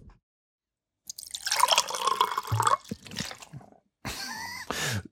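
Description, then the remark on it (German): Blood dripping and gurgling into a small glass light bulb in a few bursts with ringing, rising tones as it fills, then a brief pause before two shorter gushes. “Das war ungefähr das Geräusch, das die Glühbirne gemacht hat, als Blut in sie reingeflossen ist.”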